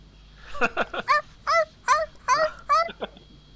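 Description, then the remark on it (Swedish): A person's voice imitates a seal's bark with a quick series of about eight short, rising yelping barks in an uneven rhythm, fairly loud, with no talking alongside. “Alltså hur, hur, hur låt en säl?”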